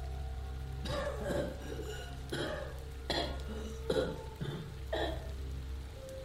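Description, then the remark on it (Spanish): At night, a woman next door coughs in a run of about six strained, labored coughs at uneven intervals, each a short harsh burst, as if struggling to breathe, over a steady low background hum. “Fue precisamente en octubre cuando una noche en que me quedé hasta tarde con mi mamá, escuchamos a la señora de al lado toser de una forma poco usual, como si le costara trabajo respirar.”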